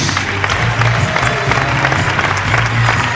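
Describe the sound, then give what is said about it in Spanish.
A theatre audience on its feet applauding the students of Padis loudly and steadily, a dense wash of many hands clapping at once with no pauses, filling the whole short stretch without any talk over it. “El teatro en pie, aplaudiendo a los chicos de Padis la verdad es que contentísimos.”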